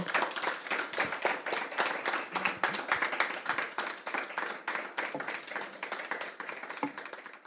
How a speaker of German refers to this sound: Und jetzt bitte nochmal herzlichen Applaus